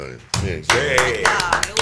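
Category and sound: crowd, people clapping in studio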